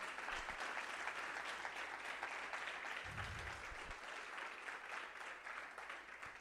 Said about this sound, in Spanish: Le puede dar un aplauso si usted lo cree.